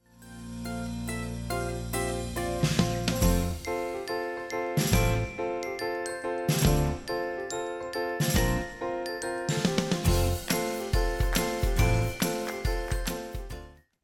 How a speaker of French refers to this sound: Et on se retrouve après ce cours générique.